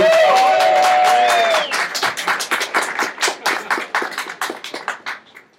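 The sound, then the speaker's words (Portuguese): An audience at an event being recorded for a YouTube channel bursts into applause and cheering, with a dense roar and rising whistle-like shouts at first, then thinning into scattered individual claps that gradually fade out. “Barulho pra ele!”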